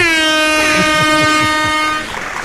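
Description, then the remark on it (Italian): A loud, blaring alarm horn sounds in one long sustained blast for about two seconds, then cuts off, leaving a low rumble; no one speaks. “Eh, allarme, allarme.”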